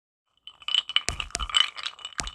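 ice clinking

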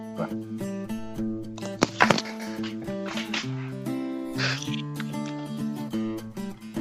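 dog barking

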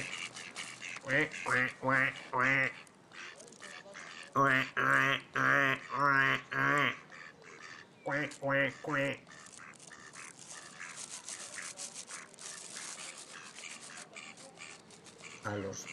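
ducklings quacking

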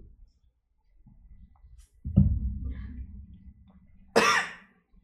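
coughing

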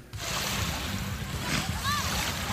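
ocean waves

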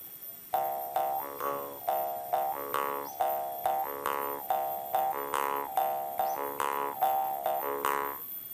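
frogs croaking

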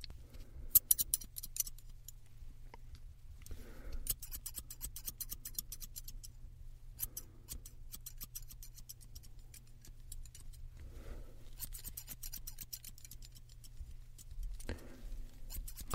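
scissors cutting hair

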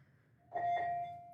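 doorbell ringing

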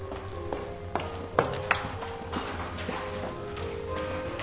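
running footsteps

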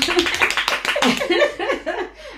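hand clapping

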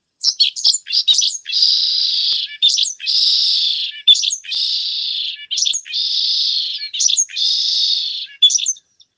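pipit (cachirla) singing loudly

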